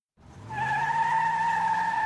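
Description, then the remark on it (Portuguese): Car tires screech loudly as a vehicle launches hard from a traffic light as it turns green, in the Greater Lisbon area, a sustained high-pitched squeal lasting about two seconds over a rising engine roar. “Parece que estão a ver quem é que acerta o arranco com o verde, como se quem o conseguisse fosse ganhar alguma taça.”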